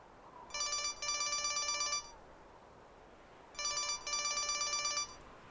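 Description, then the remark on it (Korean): A real estate agent's mobile phone ringtone sounds loudly outdoors as she walks up a road, in two bright, electronic trilling bursts separated by a short pause. It rings on its own with no voices, and she stops to answer it. “그때 휴대폰 벨소리가 요란하게 울렸다.”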